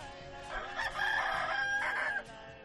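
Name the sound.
rooster crowing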